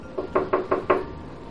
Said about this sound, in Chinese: 于是啊，丽丝走街串巷，顶风冒雨，跑了很多的路，挨家挨户去敲门，希望能找到。让他做衣服的新客户，